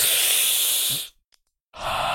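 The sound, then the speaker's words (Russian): A long, loud breathy exhale of a deep breath taken before starting, lasting about a second, then a brief pause before another airy breath begins, with no talking. “Э, дышу глубоко всегда. Перед началом так дышу.”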